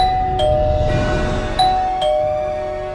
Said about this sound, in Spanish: Digo, yo creo que nos está tocando el timbre Dios, que nos quiere castigar por querer vacunarnos.